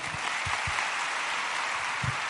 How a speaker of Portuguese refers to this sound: Vamos aplaudir essa história, não é?